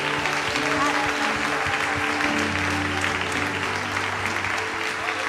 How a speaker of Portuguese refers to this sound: Se você querer, dê sua melhor salva de palmas a Ele.